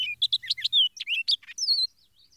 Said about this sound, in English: The song of some birds is like scarlet, strong, intense, emphatic, This is the characteristic of the orchard starlings, also of the tanagers and the various grosbeaks.